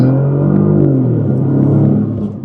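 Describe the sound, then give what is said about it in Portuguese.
A Bentley's W12 engine revs loudly under the hood, a deep, steady growl whose pitch swells and eases over a couple of seconds, with no voices over it. “Que é esse belíssimo W12.”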